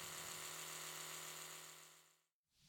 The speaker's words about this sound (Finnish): Ja sitten semmoinen pitkä hiljainen hetki, jossa se, vaan, niin se surina jatkuu ja jatkuu ja se käy sen kahden minuutin ohjelman loppuun se hammasharja ja tytär ihmettelee, että mitäs nyt.